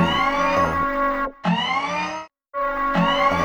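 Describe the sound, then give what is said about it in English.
An alarm blares in three long, loud bursts separated by brief silences, each a buzzy, harmonic electronic tone with a slight wavering pitch. No one speaks. “Your, the alarm is now.”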